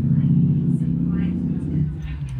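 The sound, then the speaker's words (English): A car engine revs outside, a deep, steady rumbling drone that holds fairly loud throughout, with a slight shift in pitch partway through as the motor works. “again, this is a sign. Electric cars, yeah, way forward.”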